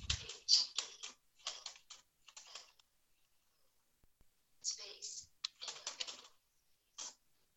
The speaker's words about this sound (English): So this can just be a regular USB keyboard. I just plug it into one of the USB ports. So here we just, the child could just type in normal, on normal QWERTY keyboard.